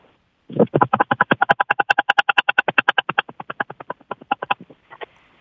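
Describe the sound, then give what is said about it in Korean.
A voice imitates a helicopter passing overhead with a fast, steady train of rhythmic chopping pulses, loud, holding for about four seconds before thinning out and fading as it passes by. “헬기 소리입니다. 머리 위로 지나가는.”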